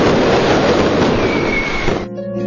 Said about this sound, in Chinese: 身后正在进行的是烟花表演，一处处灿烂的烟花冲上天空